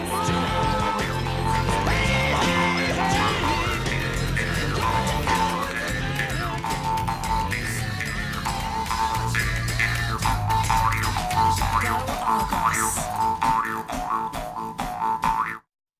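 A jaw harp twangs with a springy, boinging rhythm inside a full, loud music track that plays steadily for the whole stretch before cutting off abruptly at the end.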